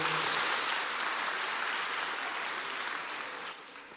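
A crowd claps steadily, a dense wash of many hands applauding at once that starts strong and gradually tapers off toward the end, with no voices over it.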